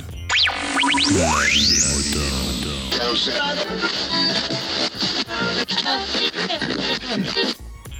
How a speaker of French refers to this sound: comme vous avez pu l'entendre, c'est le générique de La vie des moutons